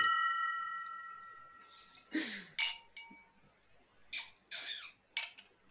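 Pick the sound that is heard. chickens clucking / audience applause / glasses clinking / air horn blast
glasses clinking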